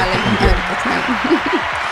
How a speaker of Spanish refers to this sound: Aplauso.